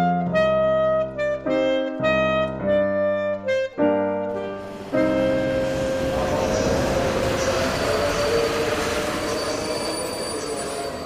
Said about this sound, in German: München, Sommer 1943. Ein Güterwaggon fährt in den Hauptbahnhof ein.